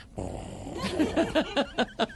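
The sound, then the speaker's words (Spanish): A person imitates a drowsy kitten: a breathy rasp gives way to about six short, rhythmic, rising-and-falling vocal pulses, like a soft purr or snore, with no other talk. “Así, ¿Cómo, cómo? así como hace un gatito.”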